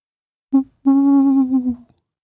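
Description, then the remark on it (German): A voice imitates an owl's hoot coming from the crown of an alder at night: a brief opening note, a short pause, then a long, steady, drawn-out hooo that fades away. Clear, with no other sounds. “machte es da aus der Krone der Erle. Wieder die Eule.”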